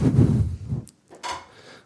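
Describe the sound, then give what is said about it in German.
A swivel chair turns with a low, rumbling creak, a short pause, then a second brief scraping swivel. It's moderately loud, and there's no talking. “So, ich muss hier schon wieder, mein Stuhl dreht sich immer.”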